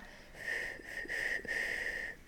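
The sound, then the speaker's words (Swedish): A soft, airy whistle drawn inward through the lips, held as one steady breathy tone that dips briefly twice, making three close phrases. Quiet, with no talking. “En liksom tyst inåtvissling som är så här”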